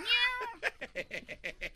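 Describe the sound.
A cat gives one drawn-out meow, then a quick string of short, evenly spaced chirping bursts. The sound is moderately loud, with no talking.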